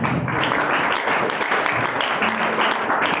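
A church audience claps loudly and steadily during a pastor's sermon, dense overlapping applause filling the space for a few seconds with no pause.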